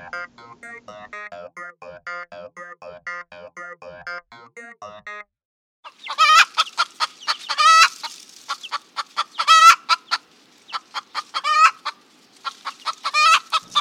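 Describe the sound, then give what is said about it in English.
Chickens cluck in a steady, soft run of short calls, then louder, sharper squawking clucks and a rooster's crow burst out in quick repeated bursts, with no talking. “Well, right now there's a lot of chicken counting going on, literally and metaphorically”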